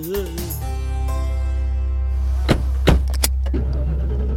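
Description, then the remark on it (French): A family car with everyone inside idles and hums steadily with a deep engine rumble, then a few sharp clicks and clunks ring out near the end as the vehicle sets off. “Tout le monde était enfin dans la voiture.”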